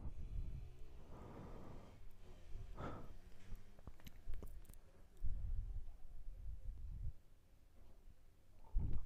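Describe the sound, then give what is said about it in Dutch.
A scooter engine drones by, its low buzzing rising and fading over several seconds, with a few faint bumps and rustles around it. “Je hoort waarschijnlijk een scooter langs gaan”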